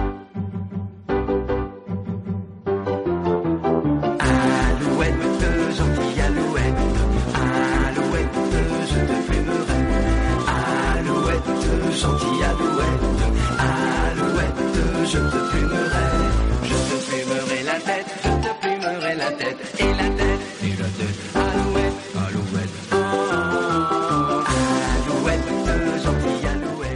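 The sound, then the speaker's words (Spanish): A full-band song plays loudly and continuously, with steady driving drums, bass and layered melodic instruments after a sparse opening few seconds, and no talking over it. “te voy a regalar un tema ¿Puede ser? Sí, pues te lo voy a regalar y bueno, escuchemos un poquito y luego ya...”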